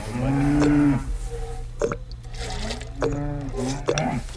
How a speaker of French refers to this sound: ces six vaches qui sont en face de nous, elles produisent à peu près combien de litres